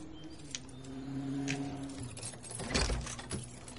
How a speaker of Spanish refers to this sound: De día, Vera abre la puerta de la casa de Mark.